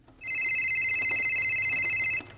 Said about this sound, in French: Un soir de novembre, mon téléphone sonne. C'est mon président, Max Wazini, qui m'appelle.